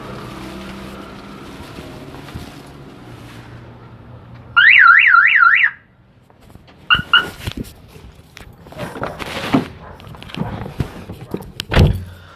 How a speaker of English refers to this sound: Let me start it, see if it starts. Yeah, the car is starting, but it's kind of like, it's kind of hesitating.